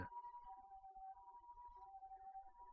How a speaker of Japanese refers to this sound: えー、サイレンが鳴ってますね。